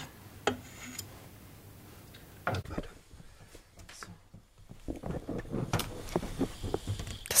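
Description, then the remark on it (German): A wooden spoon stirs half-melted chocolate in a bowl, with irregular gritty scrapes and hard little knocks, quiet at first and growing busier toward the end. “und rühre mit dem Holzlöffel so ein bisschen durch. Es ist noch nicht alles geschmolzen, deswegen hört sich das noch so ein bisschen hart an.”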